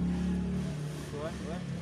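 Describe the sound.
A loud motor engine of a passing vehicle drones steadily as it is revved, its pitch rising and falling over about two seconds, with voices faintly mixed in.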